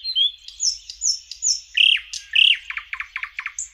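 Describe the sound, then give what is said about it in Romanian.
A common nightingale sings a rich, varied phrase of clear whistles followed by a rapid, accelerating series of sharp trill notes, loud with no other sounds. “Astăzi ascultăm trilurile Pivighetorii de zăvoi, oaspete de vară la noi.”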